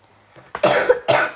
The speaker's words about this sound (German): Entschuldigung, ich habe etwas den Husten.